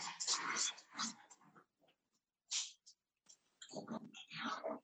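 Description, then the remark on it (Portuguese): A dog makes a series of restless vocal bursts, whimpers and low growls, with a short pause in the middle before the noisy, agitated sounds pick up again. “Pá, vou-te pedir 10 segundos para eu tirar o cão daqui, porque o cão está a boia da chata”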